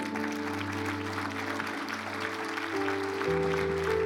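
An audience applauds steadily for about four seconds, a dense wash of clapping over sustained keyboard or organ chords that shift pitch and swell slightly louder toward the end.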